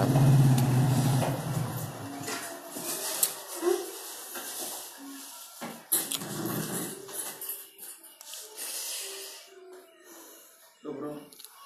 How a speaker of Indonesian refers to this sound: Ya. Yeah ya mohon maaf tadi ada motor lewat temen kos ya. ini aku rekaman di kos ya btw